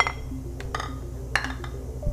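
glasses clinking

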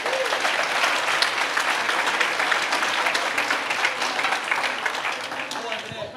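audience round of applause

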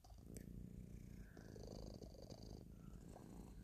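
cat purring

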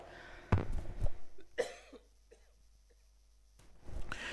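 a man coughing

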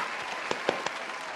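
applause ovation

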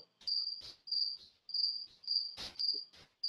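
crickets chirping

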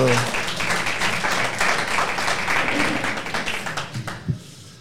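audience applause

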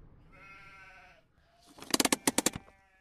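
flock of sheep bleating

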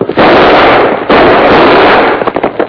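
gunshot

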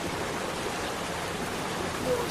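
flowing stream water

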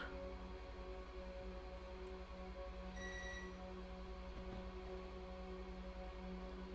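intercom buzzer ringing

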